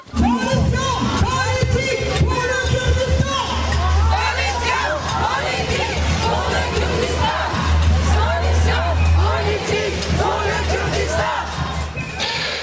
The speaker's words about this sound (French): Voilà, vous écoutiez un extrait sonore d'une manifestation qui avait lieu le week-end dernier. C'était devant l'ambassade euh, turque à Paris.